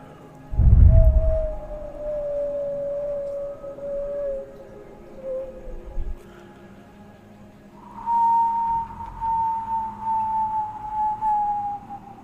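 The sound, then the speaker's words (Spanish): An eerie howling wind sound effect from the horror film Hasta el viento tiene miedo: two long, steady moaning tones, the first slowly sinking in pitch, then a brief lull before a slightly higher howl that drifts downward. A low thump opens it; no talking. “Esos efectos de sonido del viento”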